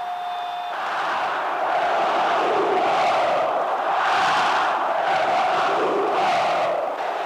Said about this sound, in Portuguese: O Maracanã veio abaixo. Mais de 95 mil rubro-negros faziam um barulho que podia ser ouvido em Porto Alegre.